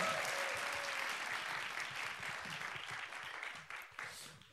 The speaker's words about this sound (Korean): 자 박수 한번 다시 한번